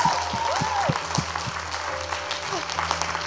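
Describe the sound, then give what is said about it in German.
An audience applauds everyone who has just decided to follow Jesus, with dense, steady clapping throughout, accompanied by a sustained musical tone and faint whoops or voices mixed into the crowd noise. “Yes, lass uns mal allen, die sich entschieden haben, einen riesen Applaus geben.”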